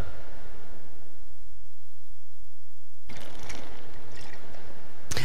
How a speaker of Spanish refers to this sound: Toma un poquito de agua.